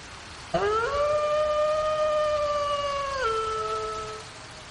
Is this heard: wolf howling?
yes